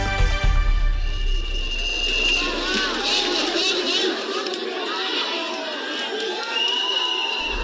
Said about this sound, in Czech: Vajíčka letající do oken, hanlivé pokřiky, rozlícený dav. Tak na konci března přivítali někteří obyvatelé Tbilisi komentátora ruské státní televize Vladimíra Poznera, který si pozval hosty na oslavu svých 87. narozenin do jednoho z hotelů v gruzínské